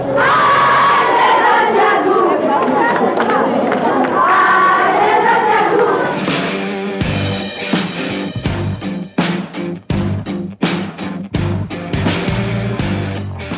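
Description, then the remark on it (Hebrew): A packed basketball crowd roars and chants loudly for several seconds at the final whistle of a game ending 72-67 to Gvat Yagur, then breaks into sharp, rhythmic clapping and cheering that keeps going to the end. “וזוהי שריקת הסיום, 72-67 לגבת יגור.”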